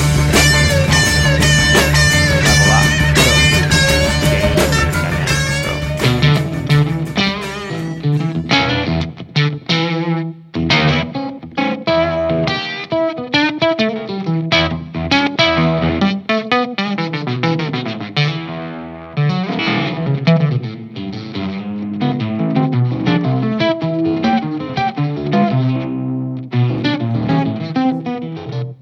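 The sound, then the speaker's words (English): Electric guitar on the bridge pickup played through a ring modulator, giving metallic, clangy, slightly brassy tones: a loud sustained opening chord, then choppy, rapid notes and bursts throughout, with no talking. “Like on the bridge pickup, I find it's really that ring moddy kind of.”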